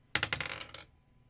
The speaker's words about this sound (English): Uh, okay, so rolling the dice.